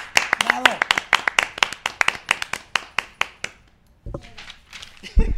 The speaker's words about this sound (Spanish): Un aplauso a la dinastía Fernández.